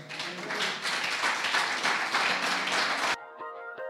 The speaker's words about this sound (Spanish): En el nombre del Padre, del Hijo y del Espíritu Santo, Iglesia, dale un aplauso al Señor.